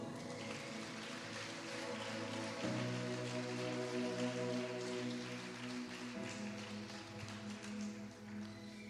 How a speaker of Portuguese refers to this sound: Aplauda ao Senhor.